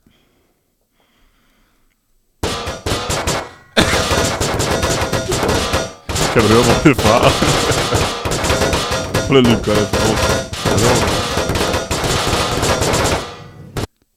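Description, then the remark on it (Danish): Loud, dense bursts of gunfire effects from a Source Engine video game pound along like a heavy metal track, running nonstop for about eleven seconds after a quiet start, with brief talk and a laugh. “det er fra Garry's Mod, det, så det er Source Engine. så det er jo Counter-Strike metal”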